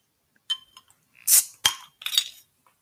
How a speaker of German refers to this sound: Ich probiere das mal und proste dir zu.